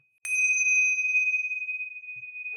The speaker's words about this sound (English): Well, I uh, hear the ringing of the bell, the last call bell here in the pub.